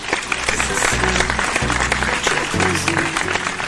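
A steady, loud burst of applause from many hands, dense crackling claps running the whole few seconds, with low sustained musical tones shifting underneath.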